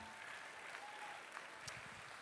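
A crowd aboard the cruise ship Serenade of the Seas claps steadily for the Caribbean singers and dancers with Vibeology and the band on stage, a dense, continuous wash of applause with a faint whistle rising briefly above it.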